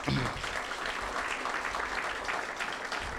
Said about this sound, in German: Und und wir möchten auch nicht verpassen, alle Leute zu begrüßen, die vielleicht live zusehen oder das Video nachträglich schauen. Auch denen bitte nochmal einen kräftigen Applaus, dass wir.